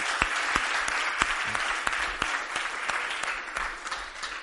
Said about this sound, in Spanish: Un gran aplauso para José, por favor.